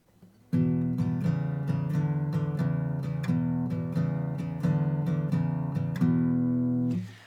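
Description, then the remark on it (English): An acoustic guitar plays a basic blues shuffle, fretted notes on the A string at the second, fourth and fifth frets over a droning open low E string, loud, with no talking for about six seconds. “That's the basic blues shuffle, but that's not the lesson.”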